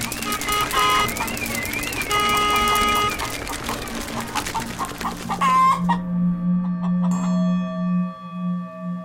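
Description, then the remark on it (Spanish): A hen clucks busily and repeatedly, fairly loud, with a steady run of rapid clucks and squawks that grows a bit more drawn-out toward the end, as it stretches its wings and runs out of the poultry yard. “Hmm, yo creo que este es el viento, dijo la gallina, y estiró sus alas y salió corriendo el patio de las aves de corral, y salió corriendo ondeando por el camino, y atravesó por él por un rato hasta que llegó a un jardín.”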